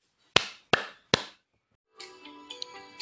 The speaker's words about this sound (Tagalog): Tapos na ba mga bata? Pumalakpak ng tatlo kung tapos na.